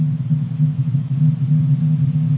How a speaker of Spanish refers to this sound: Para comprender las fuerzas que generan estas protuberancias en el interior del Sol, los científicos no solo utilizan la vista, sino también el sonido. Lo que estamos oyendo son los latidos del Sol, potenciados por la ingeniería de sonido.